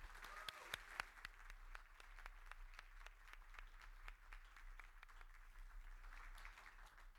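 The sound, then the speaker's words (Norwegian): An audience applauds steadily for several seconds, many hands clapping together in a dense, sustained patter with a few sharper individual claps standing out near the start. “Jeg elsker applaus, så jeg foreslår rett og slett en applaus”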